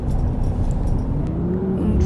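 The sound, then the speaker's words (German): A large diesel bus engine in a bus simulator game rumbles steadily, a low droning idle with a faint rising tone as it settles in after starting. “Dann starten wir den Motor”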